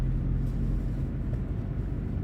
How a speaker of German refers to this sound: Mit einem Auto geht es nach unten. Über fünf Kilometer schraubt sich die Straße immer weiter in die Tiefe. Die Wände bestehen aus grauem Granit.